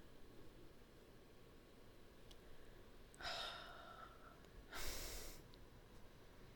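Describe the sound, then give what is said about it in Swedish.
Two slow, deep breaths: a long drawn-in inhale with a faint whistly edge, a short pause, then a firmer, breathy exhale, all over a quiet hiss with no talking. “Andas in och andas ut väldigt långsamt kan jag säga dig.”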